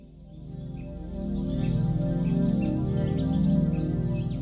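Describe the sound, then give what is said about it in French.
Small birds chirp and tweet repeatedly over a steady, humming natural ambience, with short high calls scattered throughout and no one speaking. “Alors si j'ai choisi un fond euh, assez naturel avec des petits bruits d'oiseaux pour euh, illustrer ce podcast, eh bien c'est parce que c'est une exposition qui est profondément liée à la nature.”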